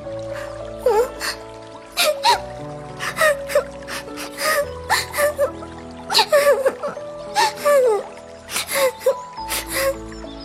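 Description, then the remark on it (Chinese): Thumbelina, the tiny girl of the fairy tale, cries softly in a series of short, breathy sobs and whimpers with sharp gasping inhales, repeating in uneven bursts over a gentle, sustained musical background. “拇指姑娘看到周围全是水，没法到岸上，也没法回家找妈妈，忍不住嘤嘤嘤的哭了起来。”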